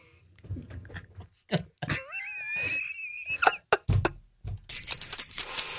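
Keys jingle in a bright, rattling burst over the last second or so, after a run of short low grunts and a high, wavering whine-like vocal sound.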